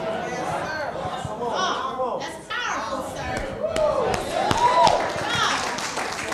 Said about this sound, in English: Glory to God. Thank you, Lord. Thank y'all for clapping, but I was clapping for myself.